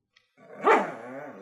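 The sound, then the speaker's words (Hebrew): A female bulldog named Skye gives one drawn-out, strained bark that rises and tapers into a low whine, fairly loud, with no other sounds around it. “שמעתי נביחות, והבלטתי למטה וראיתי את הבולדוגית שלי, סקאי.”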